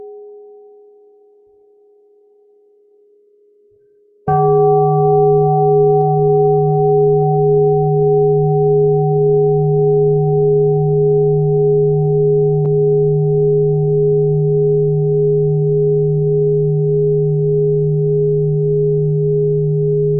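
mindfulness bell being struck

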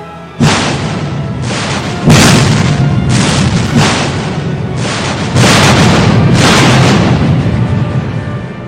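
naval cannon fire

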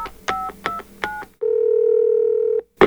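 telephone number being dialed

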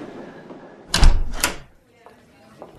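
door opening

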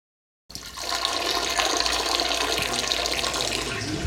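someone urinating

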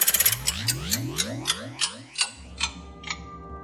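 old clock ticking

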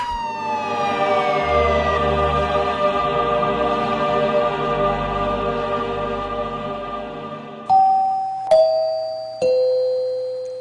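sirens wailing

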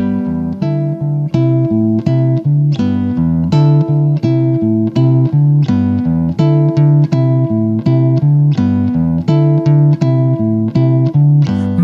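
song being played

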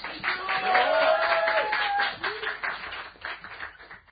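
applause

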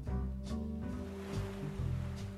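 sea surf

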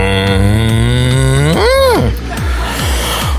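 cow mooing

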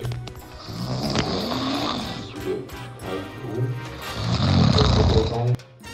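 woman snoring

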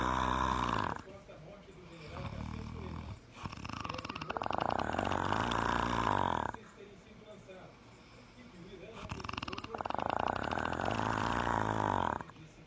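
snoring

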